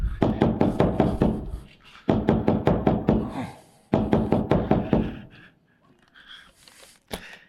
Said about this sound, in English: Hey, no knocking, okay? Sorry about that. It's not his time to come out. No knocking, or you're not coming out.